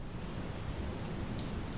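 Steady rain pours down in a dense, continuous hiss, with a low rumbling undertone beneath the patter and a few brighter drops popping out near the end. No voices.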